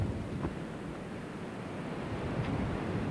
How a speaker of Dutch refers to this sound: Als het ruwe zee is, mag je nog ineens in de buurt van de kust komen. volgens mij is dit ruwe zee.